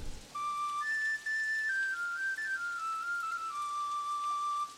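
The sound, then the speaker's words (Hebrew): An old man plays his old wooden flute, now repaired: a lone, slow, simple melody of sustained, breathy notes that rise and then gradually step down, clear with no voices. “אני לא זוכר בכלל איך מחללים בחליל.”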